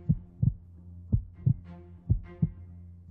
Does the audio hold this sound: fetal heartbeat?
yes